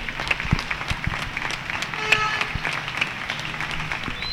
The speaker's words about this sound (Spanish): Lógicamente no vais a poder escucharlo tan fuerte como lo oigo yo, pero os, a- os aviso, son muy, muy, muy estruendosos. Está la calle completamente llena de vecinos en los balcones, tocando las palmas, aplaudiendo. Este homenaje diario increíble.